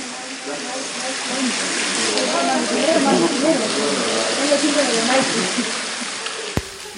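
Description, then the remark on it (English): Steady watery wash fills an echoing underground cavern with an underground lake, with soft tonal murmurs rising and falling beneath it and a few isolated plinks of water dripping, one sharp tick near the end. “Uh, but to kick off, here is the sound of water dripping in an underground cavern with an underground lake.”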